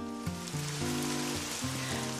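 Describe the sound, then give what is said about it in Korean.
Steady, even rain hiss fills the background throughout, with a soft melody of sustained low notes playing over it. No one speaks. “제 마음까지 씻겨지는 듯한 빗소리 위에 개구리 우는 소리가 적당히 얹어져서 들려오는데 묘하게 평온해지면서 마음이 한결 좋아지더라고요.”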